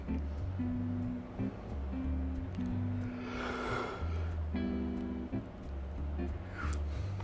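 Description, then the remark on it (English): A single breathy yawn swells up and fades midway through, soft, heard over a steady, gentle musical drone with low sustained tones. “Hear me yawning, ready to fall asleep.”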